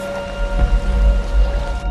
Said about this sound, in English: Lots of rain.